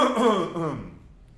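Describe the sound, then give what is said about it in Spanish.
A single raspy, throaty cough, fairly loud, trailing off into quiet within about a second. Nobody speaks. “Perdón que voy a toser.”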